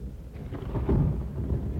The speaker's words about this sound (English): Thunder rumbled close by.